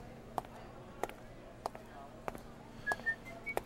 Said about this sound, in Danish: Han går fløjten over til fryserummet, men noget afbryder hans fløjten.